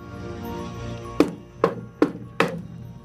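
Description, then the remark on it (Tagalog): Four firm knocks on a door in an even, steady rhythm, each a dull wooden thud, as people knock repeatedly without getting an answer. They begin after about a second of low, constant hum that continues underneath. “Ilang ulit silang kumatok pero nananatiling walang sagot.”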